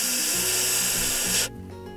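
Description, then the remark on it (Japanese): A person demonstrates a sustained voiceless 'f' sound, with the upper teeth lightly touching the inside of the lower lip and no use of the vocal cords. It is a loud, steady breathy hiss that holds for about a second and a half, then cuts off abruptly. “その辺りにですね上の歯をちょっと軽く触れさせるであの F の音の場合は、えー、声帯を使わないで、えー、音を出すこんな音です。”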